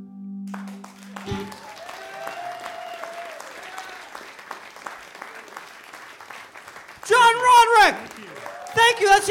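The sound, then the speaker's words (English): A crowd applauds steadily, with dense overlapping claps lasting several seconds, and then a voice speaks loudly over the fading applause toward the end. “Keep applauding.”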